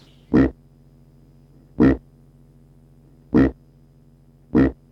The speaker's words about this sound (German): Hausschwein grunzen.